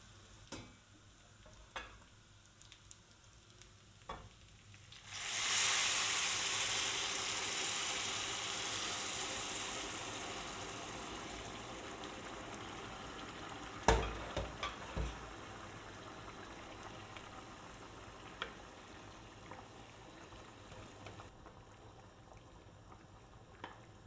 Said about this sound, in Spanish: Tenemos ya el sofrito caliente y el caldo hirviendo. Por tanto, ahora es el momento de apagar el fuego del caldo y subir el fuego del sofrito. Y ahora a continuación vamos a verter este caldo sobre el arroz.